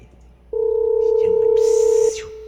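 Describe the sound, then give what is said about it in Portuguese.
A steady, loud telephone dial tone hums for about a second and a half as a call is placed, then drops to a quieter tone, with faint background noise and a brief hiss. “ligar aí pra ele aí, por favor.”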